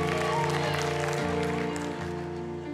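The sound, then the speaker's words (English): An audience claps steadily for a few seconds, the dense patter of many hands blending with sustained, organ-like tones and some murmuring voices underneath. “We clap for that because it seems so stupid, but it's really the truth.”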